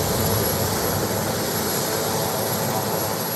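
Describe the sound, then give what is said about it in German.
A helicopter flies overhead with a steady, continuous engine roar that holds at fairly loud level throughout the few seconds, with no voices over it. “Ich höre hier Helikopter.”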